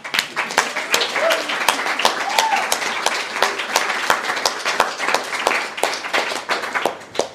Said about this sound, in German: Und dann bedanken wir uns recht herzlich bei dem Publikum, was nochmal für sich selbst klatscht, weil, hallo?